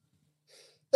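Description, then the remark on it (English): A soft, breathy inhale builds in near silence, then a sudden loud sneeze bursts out right at the end, sharp. “He's about to sneeze, and there it is.”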